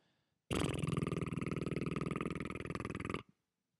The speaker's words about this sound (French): de façon à ce qu'aucun brin d'air ne peut sortir au niveau de la bouche, pour que le, souffle va sortir uniquement au bout du didgeridoo, c'est-à-dire le pavillon, à l'autre bout, là où le son il sort et j'ai fait vibrer mes lèvres en faisant